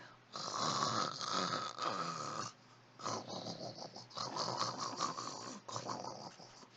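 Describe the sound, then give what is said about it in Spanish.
A voice imitates loud snoring in two long, raspy, rumbling bursts, the second broken into rougher snorts, forceful with no speech. “Y a los mismos ronquidos te despertabas, ¿no?”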